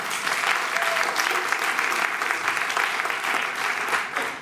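Sustained applause from an audience, given in congratulation, a dense crackle of many hands clapping at a steady loudness for several seconds with no pauses.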